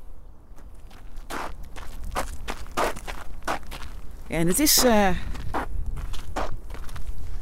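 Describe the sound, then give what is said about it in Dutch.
Steady crunching footsteps walk along a crushed-shell path, even-paced, each step a sharp gritty scrunch. Briefly, a voice speaks over the walking midway through. “Maar we kunnen gewoon lopen op het Schelpenpad.”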